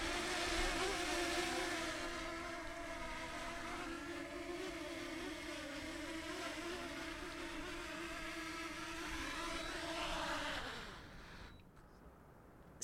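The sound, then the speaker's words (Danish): A small drone's steady, high-pitched buzzing whine, like a bee, continuous, holds for about ten seconds, then dips in pitch and spins down to near silence as it lands. “Så måske skulle alle købe sig en lille drone”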